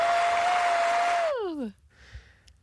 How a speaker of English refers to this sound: You, Michael Lucas, have 15 AACTA Award nominations. I'm hitting the applause button and Zig's going to put it in.